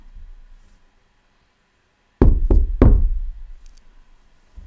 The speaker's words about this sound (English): Listen, I am standing at the door, knocking. If you hear my voice and open the door, I will come in to you and eat with you, and you with me.